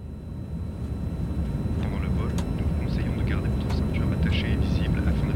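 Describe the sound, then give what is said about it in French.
A steady, loud low-pitched drone of an airplane cabin in flight to Copenhagen on Friday 24 December 2021 fills the whole clip, with faint scattered murmurs and small cabin sounds drifting over the engine hum. “Assis à côté de moi dans l'avion, mon mari lit son journal.”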